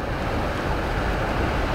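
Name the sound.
ocean waves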